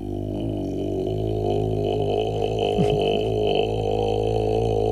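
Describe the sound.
A man shows how low his voice can go, sustaining an extremely deep, steady vocal drone for about five seconds, a rumbling bass tone rich in buzzing overtones that resembles a foghorn.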